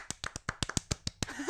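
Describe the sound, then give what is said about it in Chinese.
Two people clap their hands about ten times in quick succession, sharp and crisp with a slightly uneven rhythm, and a brief vocal sound creeps in right at the end. “那好，大家接下来听到我们的掌声。”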